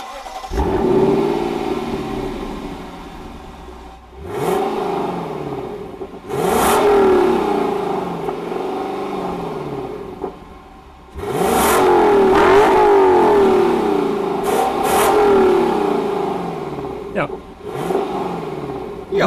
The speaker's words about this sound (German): wir haben natürlich schon ein bisschen V8-Sound erwartet, aber was da wirklich aus den Endrohren kommt beim Lexus LC500